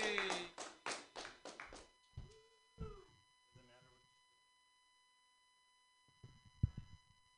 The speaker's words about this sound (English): Let's give a huge round of applause for somebody I enjoy very much,